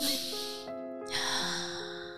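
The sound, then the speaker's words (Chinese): A long, airy breath drawn in and let out in two broad hissing swells, moderately loud, over soft sustained musical tones. “他深呼吸”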